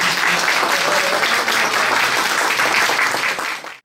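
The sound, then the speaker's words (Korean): An audience applauds steadily, a dense, even wash of many hands clapping at a constant loud level for several seconds before it cuts off abruptly at the end, welcoming a KAIST Graduate School of Future Strategy professor, author of a book about Kaesong Industrial Complex people, to speak. “김진양 교수님을 모시겠습니다. 큰박수로 맞”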